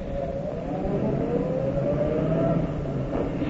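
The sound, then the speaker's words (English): A car engine hums steadily as the car approaches and turns up a driveway, its tone slowly rising, with a low rumble running underneath the whole time. No one speaks. “There's a car. As I see it. It's going to turn up our drive.”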